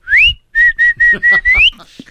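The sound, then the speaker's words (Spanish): A person whistles a short tune: a rising swoop, then four short steady notes in a row and a final upward glide, clear and fairly loud with no talking. “y sí chifla, que ya mejor ya no le hago caso, ya me hice la idea que estamos con compas aquí trabajando y ya está.”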